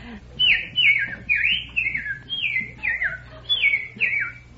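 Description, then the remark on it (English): Someone whistles an imitation of a bird call: a quick series of about eight bright, downward-sliding notes, loosely paired, over a faint low background hum. “Then there's what are some, some other bird calls?”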